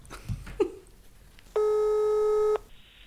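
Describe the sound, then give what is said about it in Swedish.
A single steady telephone ringing tone, one clear electronic beep about a second long, heard alone and fairly loud after a few soft clicks and rustles. “Är det ni som ringer?”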